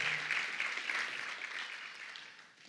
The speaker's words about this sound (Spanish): Demos un aplauso al Señor por todos los que sirven hoy en la iglesia.